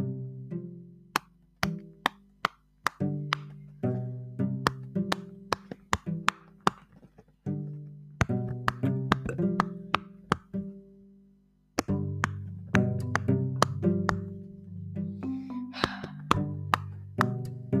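A long run of quick, soft popping clicks as the silicone bubbles of a Poppit (pop-it) fidget toy get pressed one after another, fairly loud, in uneven bursts with a couple of brief pauses and no talking.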